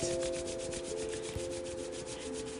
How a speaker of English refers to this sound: Now, take your palms and start rubbing them together to generate some heat. Rub, rub, rub the palms together like a happy little cricket.